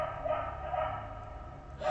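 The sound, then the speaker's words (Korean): Dogs kept by a grandfather at a house in the mountains bark repeatedly outside in quick, agitated, frantic bursts, a few seconds of urgent yelping, with no voices over it. “다행이다 하고 생각하고 있었는데 그때 밖에서 할아버지가 키우는 개들이 미친 듯이 짖는 거야.”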